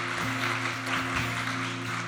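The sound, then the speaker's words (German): An audience applauds steadily for a couple of seconds during a church worship service, a dense wash of clapping to celebrate Jesus over a sustained, droning keyboard chord. “Komm, lass uns einen Applaus geben und Jesus feiern für die Entscheidungen, die getroffen worden sind.”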